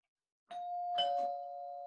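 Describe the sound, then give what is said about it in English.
A doorbell chimes a clear two-note ding-dong, the second tone slightly lower, both ringing on and sustaining loudly with nothing else in the background. “You can do the doorbell.”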